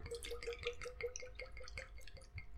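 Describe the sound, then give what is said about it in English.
Liquid glugs steadily out of a freshly opened bottle as it is poured, a quick, even rhythm of gurgling pulses that runs unbroken for a few seconds with no voices over it. “Let's dribble it all over the table while we're at it.”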